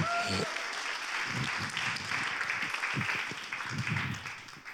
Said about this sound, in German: Jetzt ein schönes Applaus bitte für unseren.